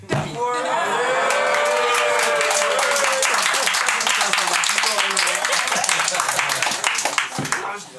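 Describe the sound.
An audience breaks into sustained applause, a dense crackle of many hands clapping at a steady loud level, with cheering voices and laughter rising through it before it tapers off.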